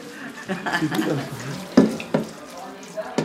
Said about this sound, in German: In der Pfanne braten Zwiebeln und Gehacktes.